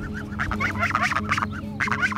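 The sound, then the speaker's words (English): Several real geese call, a busy overlapping chorus of honks and squawks repeating steadily over a low background hum, with no talking. “Those are those are real geese.”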